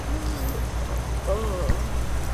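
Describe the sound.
Steady rain patters continuously over a deep, constant low rumble while passing under a bridge, with a faint, indistinct human voice or murmur rising briefly in the middle.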